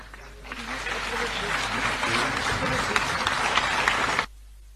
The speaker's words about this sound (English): The applause was muted. It is hard to tell whether or not this was because the councillors were still in shock that Gwamanda is indeed standing in front of them delivering this address as mayor.